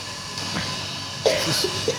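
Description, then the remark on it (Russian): A person coughs a couple of times in short, harsh bursts over a steady background hiss with no talking. “Ой, ой, как ты макрош. Нельзя кашлять в наши дни.”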